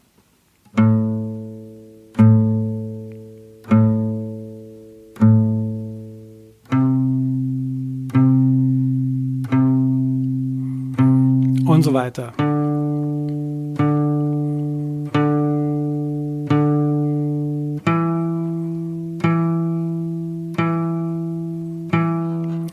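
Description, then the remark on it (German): A guitar picks single notes up a pentatonic scale, each note struck four times in a steady, even rhythm with alternating downstroke, upstroke, downstroke, upstroke, clear, with a brief spoken remark partway through. “Wir schlagen jetzt jeden Ton viermal an und zwar immer mit Abschlag, Aufschlag, Abschlag, Aufschlag.”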